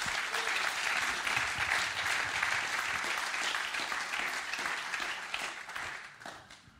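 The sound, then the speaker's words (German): An audience at a church service applauds its guests steadily, a dense wash of many hands clapping at a fairly even level for several seconds before tapering off at the end. “sind heute unsere Gäste im Interview und wir geben ihnen erstmal einen ganz, ganz großen Applaus.”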